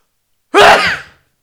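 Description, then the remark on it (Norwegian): A single loud sneeze from a person sneezing with an elbow pointed up in the air bursts out abruptly and trails off in under a second, with silence before it and no talking. “Det er så fint at du har, liksom, du har albuen, men det hjelper jo ikke når du peker albuen i været og nyser.”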